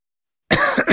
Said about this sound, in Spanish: ¿Cansado de toser?